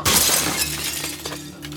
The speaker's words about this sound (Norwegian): Med batterilykta i lomma og brekkjernet under jakka gikk jeg ned til kontoret til Misjonen for hjemløse. Jeg knuste et vindu i bakgården med brekkjernet og sto stille og lytta.